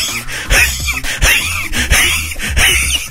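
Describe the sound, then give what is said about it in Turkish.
A person imitates heavy, rapid panting, a series of about six sharp breathy gasps in a steady rhythm, loud, like a puppy gasping with hiccups, mimicking being out of breath after climbing up to street level on an out-of-order escalator. “diye hıçkırık tutmuş acemi enik yavrusu gibi köpek yavrusu gibi soluyorduk böyle ya.”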